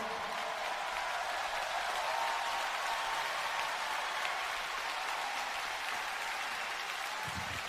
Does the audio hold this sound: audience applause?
yes